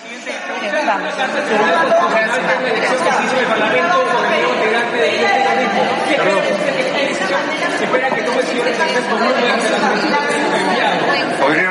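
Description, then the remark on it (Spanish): Dense, overlapping crowd chatter fills the room at a steady, fairly loud level, many voices talking at once with no single speaker standing out, like reporters murmuring in a press room. “por favor, silencio, si no, no nos podemos escuchar.”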